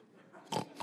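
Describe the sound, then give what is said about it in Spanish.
Two rough, snorting grunts from a peccary (wild pig), fairly loud, the first longer and the second cut short, over a low background rumble; a sound effect for peccaries on Miravalles volcano in Guanacaste. “y habían chanchos de monte.”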